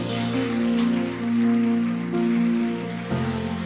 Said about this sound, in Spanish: Diga amén y dele un aplauso.